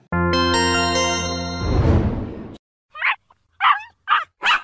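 A bright sustained chime fades into a whooshing swell, then a dog barks four or five times in a quick, uneven burst, loud, with no one talking.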